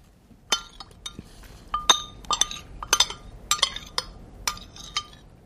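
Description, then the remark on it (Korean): A spoon scraping and clinking against a plate, giving about a dozen sharp ceramic ticks with a few brief squeaky rasps in an uneven rhythm, with no voices. “숟가락으로 접시를 긁는 소리입니다.”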